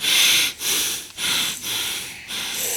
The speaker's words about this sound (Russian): Давай сейчас проверим, насколько мы с тобой можем задержать дыхание. Давай? Да. Давай, подыши как следует.